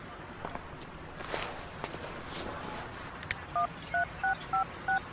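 A phone is dialed to cancel an appointment: five short, evenly spaced two-tone keypad beeps in quick succession, following a stretch of shuffling, scuffing movement and faint background noise.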